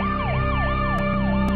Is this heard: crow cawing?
no